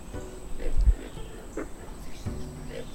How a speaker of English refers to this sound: the sound that I'm hearing is actually coming from an animal called the pig frog